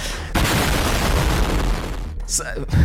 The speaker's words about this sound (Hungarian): Hú, de hangos ez az ajtó.